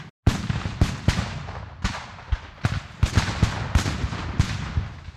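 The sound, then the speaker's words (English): A dense, irregular barrage of sharp gunshot cracks and heavier booming blasts, overlapping and echoing continuously, like a battle with musket volleys and cannon fire, together with hand-to-hand combat. “But those sounds of cannon fire and muskets and hand to hand combat slowly turned into screams of mortally wounded and dying.”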